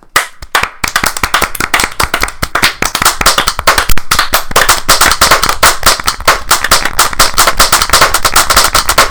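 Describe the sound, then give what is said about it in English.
A group of people clapping their hands, a dense, steady burst of applause that swells quickly and keeps going loud for several seconds, with no talking. “let's just all take a minute and clap. Can we all just clap?”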